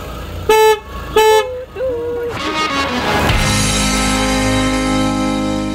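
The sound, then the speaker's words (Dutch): Two short, loud car horn honks in quick succession, followed by a brief lower tone, then an engine starting and settling into a steady idle, as the car's horn is tested to see whether it works. “En ehm, doet hij toeter het eigenlijk? Ja. Zullen we eens even kijken?”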